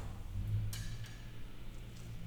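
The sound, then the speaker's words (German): A clock ticks unevenly, with two clear ticks followed by a couple of fainter ones at irregular intervals, over a low steady background hum and no talking. “Dass das nicht regelmäßig tickt, das macht nichts, das ist nicht ganz gleichmäßig ist.”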